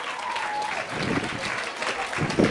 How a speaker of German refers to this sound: Wir haben heute Abend im äh, Bilderbuch mit 29 Teams gespielt. Applaus für 29 Teams heute Abend in der Tropenhölle von Schöneberg.